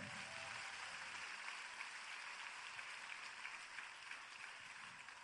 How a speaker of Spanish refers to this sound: Ahora dale un fuerte aplauso al rey.